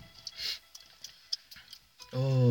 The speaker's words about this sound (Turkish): Bu arada kesin duyuyorlar be. Ya ben. Kesin duyuyorlar sen bu sakızın sesini. Şırak şırak şırak. Şaptık şıptık mı?